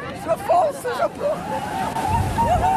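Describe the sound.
Big waves wash and splash steadily at a busy beach where people in swimsuits go into 13-degree water, a continuous rushing surf, with a crowd of voices chattering and calling out over the water.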